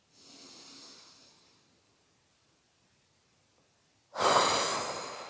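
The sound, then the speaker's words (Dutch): A slow, airy inhale, then a pause of near silence before a louder, forceful exhale rushes out, during a guided relaxation breathing exercise. No talking. “Nog een keer. Diep in. Los. En ontspan.”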